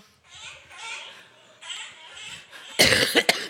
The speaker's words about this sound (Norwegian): Sånn hoster du. Host, da.